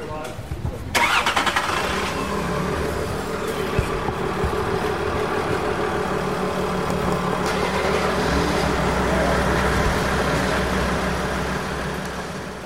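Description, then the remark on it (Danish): A Mercedes Geländewagen four-wheel-drive engine cranks and catches about a second in, then runs with a steady, rumbling drone as the vehicle pulls up in front of a barracks building, with muffled voices in the background. “Nå, det, man kunne høre her i baggrunden, det var jo dine kollegaer,”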